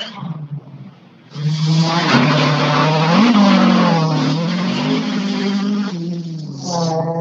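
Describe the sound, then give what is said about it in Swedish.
A Volvo 940 race car engine, driven by Tommy Eliasson, roars loudly, its pitch rising and dipping as it revs hard through gear changes for several seconds, with a brief lower rumble before it bursts to full throttle, then a clutch kick as it reaches the finish line. “kan vi lyssna på lite 940-sång.”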